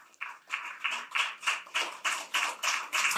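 An audience applauds the heroes of a film in steady rhythmic unison, about ten even claps of many hands in a row, fairly loud with no voices.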